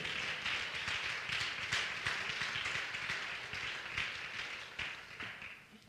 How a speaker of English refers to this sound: If you're going to help me preach, clap your hands before you're seated.